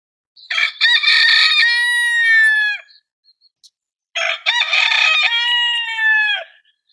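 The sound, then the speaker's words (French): A rooster crows twice, loud, each cock-a-doodle-doo a long harmonic call lasting about two seconds, separated by a short pause with no other sounds. “Et c'est dans un silence de mort que Piticock lance son cri vers le ciel.”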